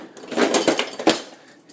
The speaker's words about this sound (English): Let me see if I can find a, a, a uh, beer bottle opener.